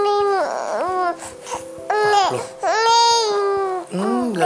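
A newborn babbles and fusses, letting out several drawn-out, wavering cries and whimpery coos in uneven bursts with short pauses between them.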